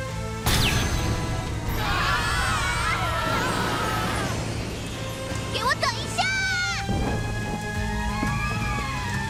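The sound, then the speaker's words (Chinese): Steady rain hisses throughout, a constant wash of noise, while voices rise over it and bright, sweeping whistle-like tones and chimes flicker through the middle. “湿哒哒的下雨天，真棒啊！”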